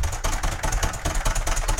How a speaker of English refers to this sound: There, there is the keyboard sound effects. I heard it.